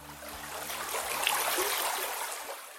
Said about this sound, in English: The headwaters of the Yakima River begin high up in the Cascade Mountains, here at a stream called Gold Creek.